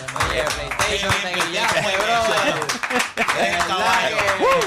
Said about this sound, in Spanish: Un aplauso ahí a los muchachos que mira, mira.